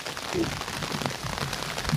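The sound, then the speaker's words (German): Steady rain falls, a dense, continuous hiss of drops pattering on a surface without letting up for the whole stretch. “Es regnet sie ein.”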